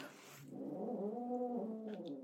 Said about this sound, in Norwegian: Er det katten, eller?